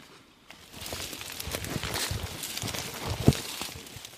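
Footsteps of people crashing through thick bush while searching for a kakapo, a steady run of rustling, snapping and crunching with one sharper crack near the end, no voices.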